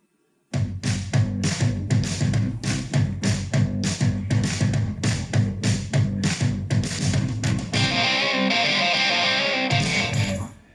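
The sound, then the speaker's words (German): Loud, distorted rock music with a heavy driving beat and regular percussive hits, shifting near the end into a sustained, buzzy wash of guitar and cymbals with no singing, played to open a live show at the FZW in Dortmund. “aber erst, wir fangen einmal an und sagen, Musik bitte.”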